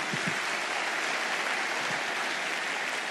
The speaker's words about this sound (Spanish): Pero saben, aplauda al Señor duro, bien fuerte.